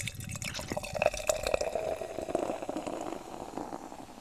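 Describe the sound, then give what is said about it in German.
Beer is poured from a freshly opened can, a steady gurgling splash with fizzing bubbles that continues for several seconds with no one speaking. “Ich mach's mal auf. Und auf jeden Fall eine Dose.”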